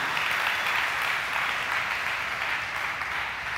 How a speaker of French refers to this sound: nous pas capables d'applaudir mon Dieu